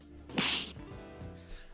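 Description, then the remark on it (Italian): A single loud, sharp slap sound effect cracks near the start, then leaves a brief humming tonal tail that fades out. “perché è il momento dello schiaffo della settimana.”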